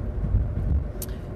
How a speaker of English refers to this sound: and sorry, we keep going over a series of bridges and it's sorry for the background noise.